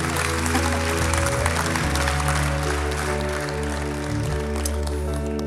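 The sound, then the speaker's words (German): Steady applause from an audience, a dense crackle of many hands clapping at a constant loudness, with a low sustained musical tone held underneath throughout. “Danke vielmal, Lass uns Applaus geben.”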